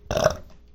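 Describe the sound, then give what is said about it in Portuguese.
A single short burp after drinking water, with a brief throaty rasp, over in under half a second, followed by a faint breath afterward; no talking. “Olha só, arroto de água.”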